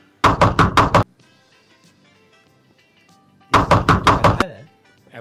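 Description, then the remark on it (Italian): Two quick bursts of knocking on a door, each four or five sharp raps in a fast rhythm, separated by a pause of a few seconds; fairly loud, with faint background noise between. “Riesci a farmi il campanello che faccio la scenetta? Che faccio allora il campanello le... non ce l'abbiamo, ma ho la porta se vuoi.”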